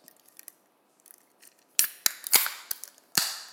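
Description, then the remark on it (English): A can of White Claw hard seltzer being opened: faint small clicks, then a run of sharp, bright cracks and a short fizzing hiss, with a final loud snap. No talking. “Well, it's a white claw.”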